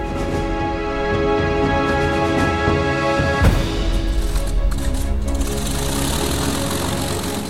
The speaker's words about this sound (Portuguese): E no dia 1 de janeiro de 1944, quase mil aviões alemães em 38 campos de aviação ligaram os motores logo no alvorecer, partindo para aquela operação.